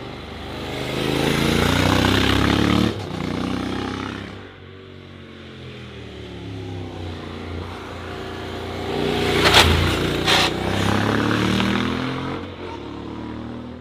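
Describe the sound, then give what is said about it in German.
A Honda NC750X motorcycle engine rumbling at low revs, a deep steady drone that swells louder, eases off, then builds again with a brief rev around the middle, with no voices over it. “Es spielt sich alles im Drehzahlkeller ab, aber entscheidet selbst.”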